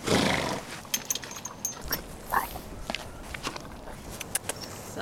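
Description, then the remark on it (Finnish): A white horse approaches hoping for food, its hooves landing in a few irregular, soft thuds with a brief breathy snort, outdoors with no one speaking. “Ei tullut mitään kyllä hevoselle maistuu.”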